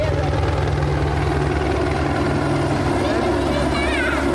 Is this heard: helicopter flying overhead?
yes